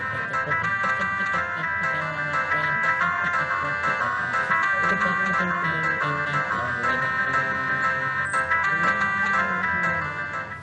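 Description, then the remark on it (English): Drums beat steadily through a dense, bright melodic music piece, the percussion hits punctuating sustained tonal layers at a constant loud level from start to finish. “So now we can hear the drums.”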